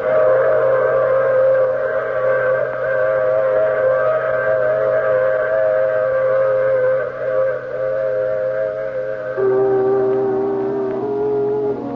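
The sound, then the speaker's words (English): A train whistle blows as a passenger gets off the train, one long, steady chord of several tones, loud, with a low rumble beneath and a slight drop in pitch near the end. No one speaks. “I take this same train every week at this same time.”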